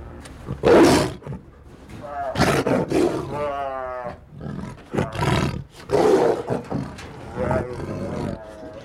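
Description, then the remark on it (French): A tiger in its cage roars repeatedly in loud, harsh bursts, each deep rumbling cry rising and fading, with short breathy pauses between them. “ce cri est terrible là, parce que souvent, bah, vraiment, euh, euh, quand vous l'avez en face de vous, et puis ça, voyez-moi que ça vous passe partout jusqu'au pied.”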